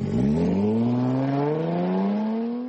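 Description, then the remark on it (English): A Jaguar E-Pace compact sports SUV engine revs up loudly, its growling tone climbing steadily in pitch as it accelerates over a few seconds, with no talking. “the Jaguar E-Pace, a compact SUV with sports car DNA.”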